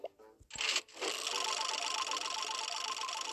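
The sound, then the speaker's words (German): A phone game's prize wheel spins with a rapid, steady stream of electronic ticks and bright tones, continuing at an even, moderately loud level after a short burst at the start, with no talking. “Mit dem nächsten Glücksrad. Dreh.”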